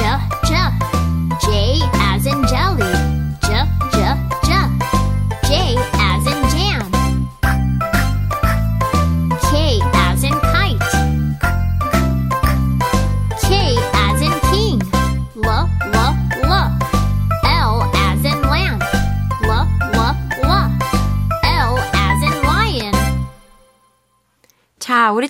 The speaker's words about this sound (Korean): 다시 한번 챈트 불러볼 텐데요. 반주 나가면 우리 친구들은 친구들이 좋아하는 단어 쏙쏙쏙 넣어서 신나게 불러보세요.